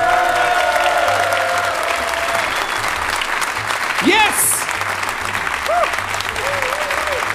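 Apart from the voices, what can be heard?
audience applause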